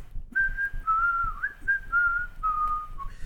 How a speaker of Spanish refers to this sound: Así era el silbido de esa persona. Ah, ya, ya, ya. Tu silbido de cuando finges que eres un asesino serial.